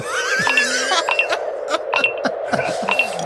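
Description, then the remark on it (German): A die tumbles and clatters across a hard tabletop in a quick run of sharp, irregular clicks and lands on a one, with faint background murmur underneath. “Okay, es ist für mich die Eins geworden.”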